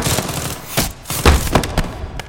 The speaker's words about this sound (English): Well then, tell them to stop shooting at us and I will!